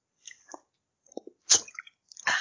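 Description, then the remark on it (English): Someone takes a sip of water: a few soft, wet slurping and swallowing noises in short bursts, ending with a louder breathy gulp, with no talking. “I've got a, I'm just going to take a little drip, drink of water.”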